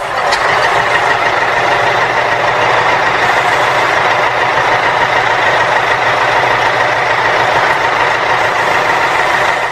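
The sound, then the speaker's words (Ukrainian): A heavy tractor engine runs steadily and loudly with a constant droning rumble and a dense mechanical hum that holds unchanged throughout, with no voices. It is the first tractor, driven into the village of Znamenske in Donbas by machine operator Fedir Ivanovych Bykov. “Батько його механізатор Федір Іванович Биков пригнав у село перший трактор.”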